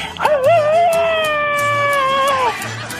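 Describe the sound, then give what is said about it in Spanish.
A single agitated shout, high-pitched and held for about two seconds, wavering at first, then steady before trailing off, with a howl-like quality over a low background rumble. “Y comenzamos la hora con un grito alterado, viejón.”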